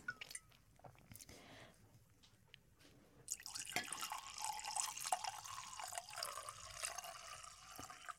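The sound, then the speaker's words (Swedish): A steady stream of liquid poured by the speaker into a vessel after a few scattered drips, a broad hissing splash that runs continuously for several seconds, fairly loud, much like someone urinating. “Så, då lät det som att någon kissade.”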